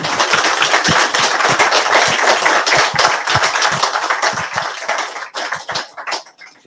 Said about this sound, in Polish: Drodzy Państwo, ja myślę, że to jest taki moment, żeby podejść, kupić książkę, poprosić o autograf naszego gościa, ale najpierw wielkie brawa dla Łukasza Orbitowskiego.